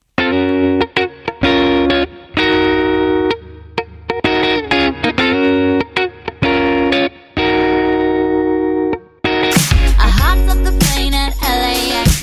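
A pop song plays loudly, opening with choppy, effects-laden guitar chords in short rhythmic bursts before a fuller band with heavy bass and drums crashes in near the end.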